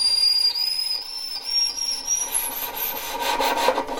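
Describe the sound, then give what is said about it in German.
A very high, thin violin note played past the end of the fingerboard, whistle-like and wavering slightly, with prominent scratchy bow noise growing rougher toward the end; no voices. “Der höchste Ton, den man hören kann, ist dann auch auf der Geige spielbar und dann kann man auch darüber hinausgehen.”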